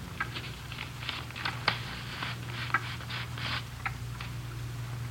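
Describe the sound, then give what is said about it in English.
A folded paper note is carefully opened by one corner using a fingernail, giving a series of soft, crisp crinkles and small crackles, with a low steady hum underneath and no talking. “You want to grab one corner of the paper”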